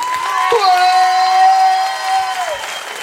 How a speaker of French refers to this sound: Le coteau, fait du bruit L'équipe active, applaudissez-vous